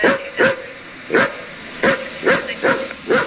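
A dog barks seven times in a quick, slightly irregular series, each bark sharp, with no talking around it.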